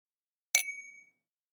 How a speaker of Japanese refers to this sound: 一回、乾杯しとくか。乾杯。